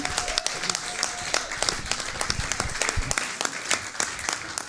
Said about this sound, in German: Ja, sehr, sehr, einen großen Applaus hier bitte.